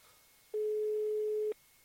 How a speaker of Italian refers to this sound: mi pare che si senta meglio il rumore della telefonata, quindi dovrebbe anche sentirsi meglio il resto.